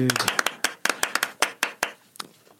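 Brief applause in a studio for a man coming in from outside: quick, irregular hand claps, sharp and fairly loud at first, then thinning out and fading after about two seconds, with a hint of a voice at the start.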